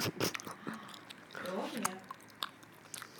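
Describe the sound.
Wet chewing and soft squishy mouth sounds of someone eating a gummy candy, with brief bits of voice and breathy murmurs mixed in over a few seconds.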